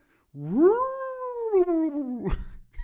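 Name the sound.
voice imitating howling wind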